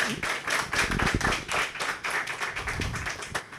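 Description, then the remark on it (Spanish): An audience at the Conexiones talk event claps steadily for several seconds, a dense, crackling wash of many hands with no voices over it, holding a fairly even level throughout. “Un aplauso, por favor.”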